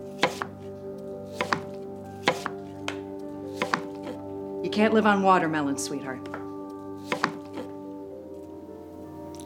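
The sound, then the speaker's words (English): A mother chops erratically with a knife on a cutting board, sharp, uneven strikes with irregular gaps, fairly loud, while her daughter does homework; a woman briefly speaks partway through. “Nadia trying to do homework with her mother chopping erratically.”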